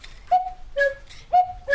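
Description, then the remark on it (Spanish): Four short, breathy flute-like whistle tones alternate between two pitches, high then low. This is the two-note call of a cuckoo clock's bellows-driven flutes, worked mechanically by two small levers, and each tone has a soft puff of air. “Entonces primero acciona esta flauta. Al revés. Es esta. Primero es esta.”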